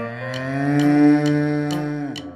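A single long, loud cow moo, holding a steady low tone for about two seconds before sliding down at the end, with faint regular clicks ticking behind it.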